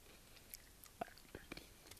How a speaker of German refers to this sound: Sorry, ich knupse wieder. Hm, also knuspern.